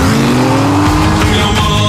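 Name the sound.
car swerving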